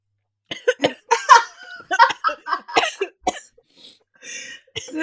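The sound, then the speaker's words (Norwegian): A burst of harsh coughing after a sip of Christmas soda, several rapid hacks in a row with a few strained breaths between them, followed by quieter wheezy exhales as it settles down. “blåser den julebrusen bare hitter for hardt.”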